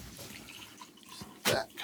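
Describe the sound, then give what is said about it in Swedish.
Coffee trickles and splashes as it's poured into a cup, a soft liquid sound with a brief louder gush near the end; no one speaks. “Man vill inte hälla upp det allra sista för då blir det lite, lite sumpigt.”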